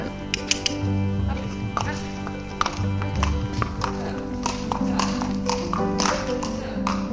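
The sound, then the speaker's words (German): Horse hooves clip-clop at an irregular pace on a hard surface in the large courtyard of a riding stable near Cologne, Germany, as horses do their rounds or are led out for a ride. Sharp knocks sound over a steady low hum, with faint voices in the background. “Einige Pferde drehen auf dem großen Innenhof ihre Runde oder werden zu einem Ritt hinausgeführt.”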